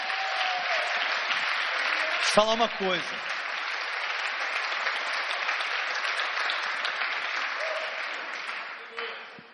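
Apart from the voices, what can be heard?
audience applauding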